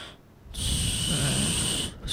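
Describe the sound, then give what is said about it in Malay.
Someone imitates with their voice the snoring of a person asleep: one drawn-out, rasping snore lasting over a second, fairly loud, with a brief breathy sound right after. “Eh ini bunyi Opi tidur ha.”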